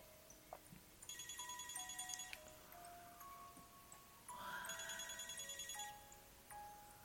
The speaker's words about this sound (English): A sigh washed onto your neck when the familiar tone of Shinso's phone interrupted.